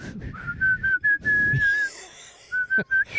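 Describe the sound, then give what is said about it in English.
A clear, bright whistled tune from a California Psychics TV commercial, a few sustained notes with brief pauses, fairly loud over a low background rumble, with no talking. “Good afternoon to you too, and everyone except the whistling guy from the California Psychics commercial.”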